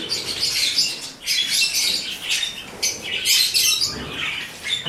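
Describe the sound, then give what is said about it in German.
A single bottle-green king parrot, kept alone, calls repeatedly in shrill, high-pitched squawks and chirps, coming in irregular bursts over a low background hum, with no talking. “So ein Flaschengrün. Königssittich.”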